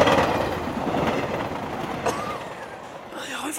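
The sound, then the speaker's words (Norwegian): A train rumbles past, a steady loud roar with a rhythmic clickety-clack of wheels on the rails, fading slightly before a faint metallic squeal at the end. “På tog som treffer den kritiske journalisten akkurat nå.”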